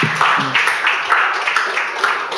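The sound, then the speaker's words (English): An audience applauds steadily for their pastors at the end of an evening event, many hands clapping in a dense, continuous patter with no single claps standing out. A brief voice murmur sits low at the very start. “Please clap for the clap for your pastors.”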